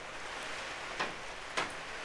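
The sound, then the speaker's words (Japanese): Quiet, steady rain hisses evenly outside a garden room on a windy day, with no voices, broken by two brief, sharper taps like drops striking a surface. “ガーデンルームに行ってみましょうほら雨の音が聞こえるでしょいやいいよね雨僕雨好きなんですよ”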